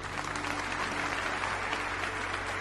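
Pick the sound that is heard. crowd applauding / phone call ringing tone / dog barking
crowd applauding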